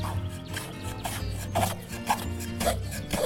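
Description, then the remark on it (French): A carpenter's hand plane scraping along an oak door in repeated rasping strokes, roughly every half second, each ending in a brief squeak, over a steady low-pitched drone. “du menuisier qui rabote une porte de chêne”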